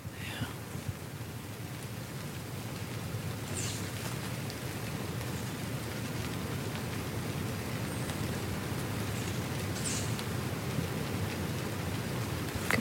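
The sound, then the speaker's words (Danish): Steady rain begins to pour down with a dense crackling patter, while low thunder rumbles continuously underneath for the whole stretch; no one speaks. “Det lyder flot nu, ikke, når regnen begynder.”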